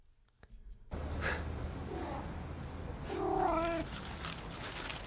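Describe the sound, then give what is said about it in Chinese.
A cat that is secretly eating someone's cornflakes gives one drawn-out, wavering meow partway through, preceded by a couple of softer, brief vocal sounds, over a steady low background hiss. “猫在偷吃他的麦片。”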